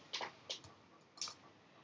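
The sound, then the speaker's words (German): A few quiet, sharp computer mouse clicks, three or four of them at an uneven pace, close by, with no talking. “Da klicke ich jetzt mal kurz auf die Folge drauf.”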